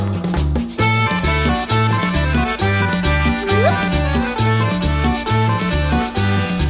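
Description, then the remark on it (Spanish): An accordion plays a lively cumbia tune over a steady, bouncing bass rhythm, loud, with sustained reedy chords and a quick rising slide partway through. “Y ahora viene el acordeón.”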